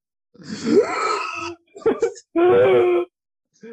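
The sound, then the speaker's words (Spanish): A person imitates the squeal of a pig being slaughtered: three loud, strained, high-pitched vocal shrieks, a long wavering cry, a short yelp, then another harsh sustained squeal. “Cuando matan un cerdo, cuando matan, igual, igual, tío.”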